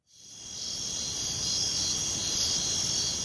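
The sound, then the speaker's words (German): A grasshopper chirps steadily and continuously, a dense high-pitched buzzing that holds even throughout, with no pauses and no voices. “Was die Welt am Brummen hält. Die Heuschrecke.”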